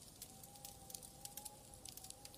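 Quiet, irregular pops and snaps of a crackling fireplace over a faint, steady whistle of winter wind, with no voices present.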